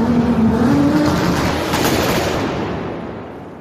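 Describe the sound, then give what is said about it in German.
A car engine roars to life and revs up, a loud rumble with a rising whine early on, then the roar gradually eases off toward the end. No one speaks. “Gib Gas, mal die Leute warten doch. Zündung!”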